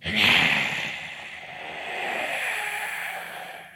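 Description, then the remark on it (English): A voice imitates a creature's breathy hiss-roar, a loud rasping burst at the start that trails into a long, airy exhale lasting a few seconds, with no words spoken. “And it kind of looks around and you hear this like this this sort of you're not sure if it's a if a hiss or a roar.”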